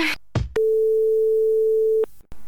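A single steady telephone line tone, heard before a call connects, holds for about a second and a half, loud, bracketed by brief clicks and line noise, with no voices.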